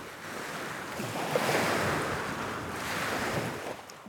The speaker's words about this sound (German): Möglicherweise das Abendrot mit Meeresbrandung an einem fernen Strand.